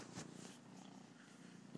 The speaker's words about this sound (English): yeah, baby likes to purr. She'll probably meow at some point, like she usually does.